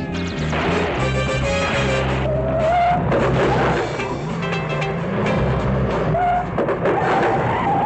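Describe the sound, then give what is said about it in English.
A car drives hard and loud through the whole stretch, engine roaring with screeching tires and a few crashing impacts mixed into a dense, chaotic rumble. “Man, this car's a real dud.”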